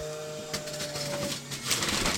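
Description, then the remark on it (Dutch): The electric motor of an 1800-watt juice centrifuge whirs with a steady mid-pitched hum, joined by clattering, rattling bursts and a rough grinding hiss that grows louder toward the end. “Maar nou, een sapcentrifuge wordt echt je kind, hè?”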